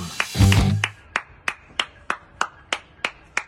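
A single person claps hands in London, in a steady, even rhythm, about a dozen sharp, crisp claps at roughly three per second, with a brief low thump mixed in near the start.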